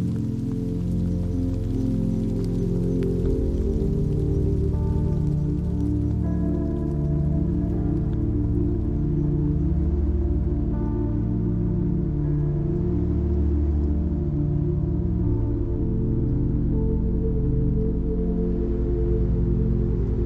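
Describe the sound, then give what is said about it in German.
Steady rain patters continuously on tree leaves and streets, a soft even hiss with faint drips, blended under a calm, droning ambient music bed with sustained low tones. “Du wanderst weiter und hörst das beruhigende Plätschern des Regens auf den Blättern der Bäume und auf den Straßen.”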